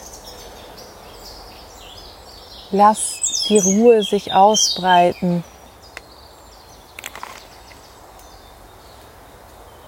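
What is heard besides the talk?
birds chirping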